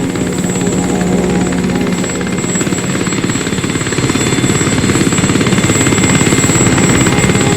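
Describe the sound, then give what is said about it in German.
A helicopter drones loudly with a steady, rapid rotor chop, the thudding growing slightly stronger over several seconds as it approaches the Henkersberg. No voices are heard. “Ein Hubschrauber?”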